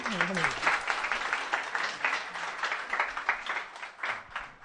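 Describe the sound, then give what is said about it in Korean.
An audience claps steadily for several seconds for an audience member receiving a prize (toothpaste) during a giveaway, a dense, crackling wash of many hands with no break, briefly joined at the start by a voice rising in pitch. “박수로.”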